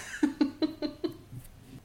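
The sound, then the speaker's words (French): A cat eating its dry kibble: a quick run of about six or seven crunchy bites in steady rhythm, then a few softer chews trailing off. No one speaks. “Nous entendons le chat qui mange ses croquettes en fond.”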